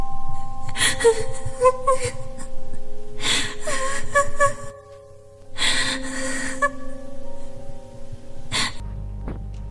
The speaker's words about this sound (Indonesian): Samar-samar aku mendengar suara tangisan. Terdengar lirih namun sangat jelas.